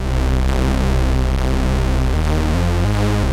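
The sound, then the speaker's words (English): A loud, sustained analog synth bass tone from a Bass Station synthesizer using ring modulation, with a dense, metallic buzz, holding steady before stepping through a few lower pitches near the end, with no voices. “Ring modulation might work with this.”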